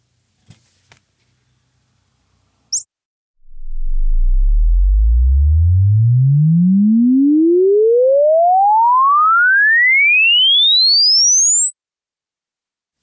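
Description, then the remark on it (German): A loud, steady sine sweep rises smoothly from a deep bass rumble up to a piercing high pitch over about nine seconds, preceded by a couple of faint clicks and a brief high chirp; a room acoustics test measurement run with Room EQ Wizard software at the standard listening position. “Also machen wir mal eine Testmessung. Der Room EQ Wizard ist also schon scharf gestaltet und wir gucken jetzt einfach mal, wie es an meiner Abhörposition, an meiner Standardabhörposition eigentlich klingt.”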